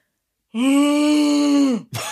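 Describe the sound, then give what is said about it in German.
A person imitates how a rutting stag sounds at night with a single long, steady, droning groan of over a second, loud, trailing off before a brief second vocal sound begins. “Äh, noch nicht, aber vielleicht könntest du mir so einen Hirsch mal vormachen, wie der nachts klingt.”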